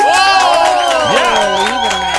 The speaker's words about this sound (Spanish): ¡Fuerte el aplauso! Para los Libras, que son unos paqueteros que están.